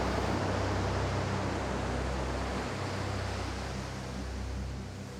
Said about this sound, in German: Das Wasser trägt dich nun eine Weile. Konzentriere dich auf das leise Rauschen des Meeres.